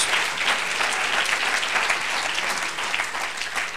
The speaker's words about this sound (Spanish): Ah, gloria a Dios, Se volvió un buen aplauso al Señor, hermano. Gloria a Dios.